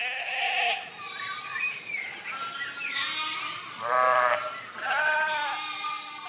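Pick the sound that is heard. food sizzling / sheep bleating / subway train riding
sheep bleating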